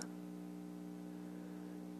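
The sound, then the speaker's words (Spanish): A steady electrical hum from a voltage stabilizer, quiet and unchanging, with a faint buzzing static texture and no voices around it. “Lo único que me incomoda un poco es la estática del estabilizador de energía.”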